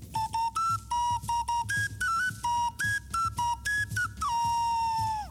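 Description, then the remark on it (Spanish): A four-tone ocarina plays a short, bouncy melody of clear, pure notes hopping between a few pitches, ending on a long held tone that slides downward as it fades. “Aquí tenemos otra una ocarina de siempre de cuatro tonos.”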